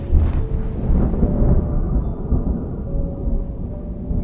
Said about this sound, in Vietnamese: Bên ngoài trời tiếng sấm nổ rung chuyển cả không gian